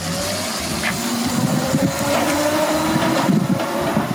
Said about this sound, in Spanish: Esto que escucháis, esto es una Vespa. Y esto que vais a escuchar ahora también es una Vespa.